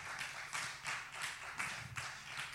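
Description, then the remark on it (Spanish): Applause for the Lord in steady, rhythmic waves, with crisp bright claps pulsing roughly three times a second at a moderate, fairly soft level. No one speaks over it. “Alguien déle un aplauso al Señor allí en su casa.”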